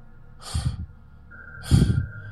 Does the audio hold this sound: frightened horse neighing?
no